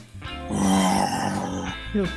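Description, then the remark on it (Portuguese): A person growls out a loud, raspy imitation of a lion's roar, one sustained rumbling bellow lasting over a second, ending with a short grunting rise. “Hoje não teve animal, né? Então não posso me despedir fazendo nenhum barulho. Ah, o símbolo da Premier League é um leão.”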